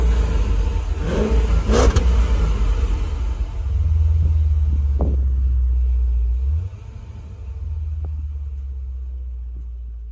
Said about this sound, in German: ja, dann würde ich sagen, starten wir den Motor. Fahren.